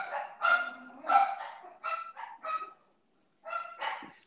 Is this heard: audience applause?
no